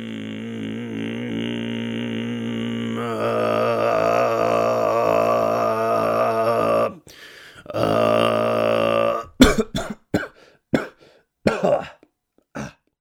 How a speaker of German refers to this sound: In einem Selbstversuch möchte er herausfinden, wie Kehlkopfgesang eigentlich geht.